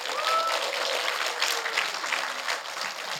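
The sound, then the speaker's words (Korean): Steady applause given as glory to God during a sermon fills the whole stretch, a dense, even wash of many hands clapping at once, sustained without a break and fairly loud throughout. “우리 하나님께 영광의 박수 올려드립시다.”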